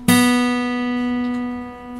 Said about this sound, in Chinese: 接下来我们调三弦，三弦的四品处等于二弦的空弦。好，先弹三弦的四品处，一二三四，再弹二弦的空弦。